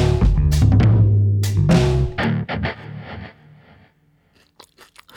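Loud, rapid crunching as someone bites into and chews a crisp snack, with several sharp bursts early on that taper into softer, wetter chewing and a few quiet clicks at the end.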